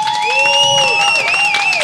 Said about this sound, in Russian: Э, похлопайте те, кто был в Израиле. Похлопайте. Ну так всегда, вы просто так хлопаете, как будто я проверять буду. Нет, давайте похлопайте вот прям реально. Кто был в Израиле? Похлопайте, ребята.